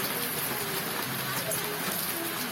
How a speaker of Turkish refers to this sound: Yurdun kuzeyi aşırı yağmur alırken Ardahan'da dolu etkili oldu. Ağustos ayına günler kala yağan misket büyüklüğündeki dolu şaşkınlık yarattı.